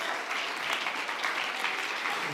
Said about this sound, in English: Somebody ought to clap your hands.